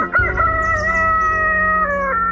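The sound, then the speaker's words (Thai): A rooster crows loudly at dawn, one long sustained cock-a-doodle-doo lasting about two seconds, with no voices present. “ดังนั้นพอถึงเวลาเช้าวันใหม่ พ่อไก่ก็ได้ขันอย่างดัง ๆ”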